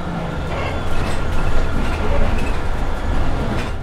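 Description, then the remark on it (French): A steady, deep rumble of engine and road noise fills the cabin of a moving city bus, swelling slightly now and then, with faint indistinct voices in the background. “Non, on arrive dans 20 minutes là, on est dans le bus.”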